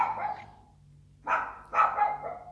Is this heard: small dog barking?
yes